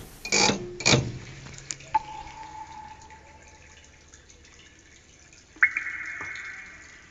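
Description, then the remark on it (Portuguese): Typical mine noises played in a sound booth by pulling levers: two sharp, loud metallic bursts, then a steady mechanical hum and whine, a few drips and clicks, and a higher tone that rises near the end. No one speaks. “Mais à frente, entramos numa espécie de cabine de som onde, puxando umas alavancas, conseguimos ouvir os ruídos típicos da mina.”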